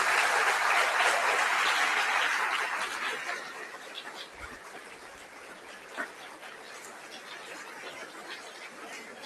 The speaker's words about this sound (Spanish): Le damos un fuerte aplauso a nuestro Señor Obispo.